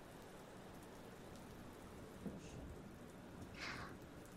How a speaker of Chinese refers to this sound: 啊，在山里走路的时候下雨了，就来这里避雨了吗？